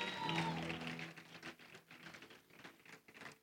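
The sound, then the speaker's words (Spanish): A crowd applauding the stage team: dense, steady clapping that continues for several seconds, with a short voiced cheer or call mixed in at the start before settling into even clapping. “Denle un aplauso, por favor, al equipo de Stage.”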